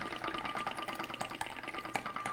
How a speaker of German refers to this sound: Ich muss jetzt kurz mir mal noch einen warmen Tee ein, einschenken, weil meine Stimme wird ein bisschen, bisschen schwierig.